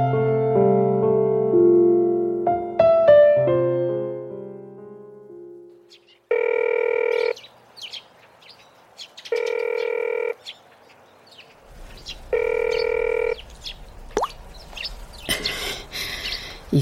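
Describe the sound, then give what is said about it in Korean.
A phone call to a son rings out unanswered: a short melodic phone chime, then three even, steady ring tones, each about a second long with pauses between, and no one picks up before faint background noise. “것들이 이젠 받지도 않네. 안 받죠? 안 받을 거예요.”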